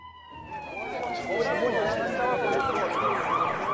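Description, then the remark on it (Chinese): A police car siren wails in repeated rising and falling sweeps, growing slightly louder after the first half-second and holding steady over a busy, cluttered background. “狮子则是站在两个小偷身上，一直到警察赶来为止。”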